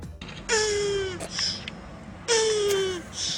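Turtles mating: two drawn-out, strained moaning calls, each lasting under a second with a slightly falling, nasal pitch, separated by a short pause. No one speaks.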